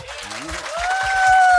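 A live audience applauds itself at the end of a show, steadily, in a dense wash of clapping that swells louder toward the end, with a sustained whistle joining partway through and a brief voice early on.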